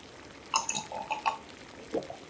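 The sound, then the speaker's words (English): A few quick, wet slurping sips of water, followed by a soft gulp, all quiet with no talking. “Mm, good water.”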